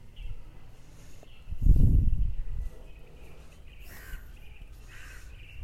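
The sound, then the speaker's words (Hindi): Outdoor ambience in a garden with faint crow caws and scattered bird calls in the background, over a steady high chirping tone and a brief low rumble. “ये जो बैकग्राउंड में जो चिड़िया कौआ सब बोल रहे हैं इनकी आवाज़ें और धीरे धीरे चलती गार्डन में टहलती हुई मैं”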